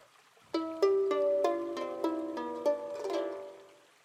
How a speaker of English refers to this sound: Here is the sound of harp.